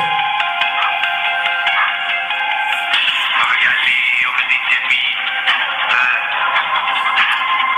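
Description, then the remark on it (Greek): A trap song plays continuously through a small, tinny speaker, loud and thin with little bass, and no one talks over it. “Είναι τραπ.”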